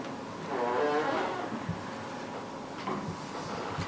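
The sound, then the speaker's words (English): A door creaks open with a drawn-out, squeaky hinge groan, followed by a few soft, scattered thuds, all at moderate volume with no one speaking. “He opens up his door”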